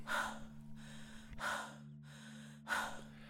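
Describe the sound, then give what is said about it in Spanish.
Three slow, steady breaths, each a soft airy rush about a second and a half apart, heard quiet over a faint low hum, with no talking. “Cada respiración representa el riesgo de desarrollar ansiedad o depresión.”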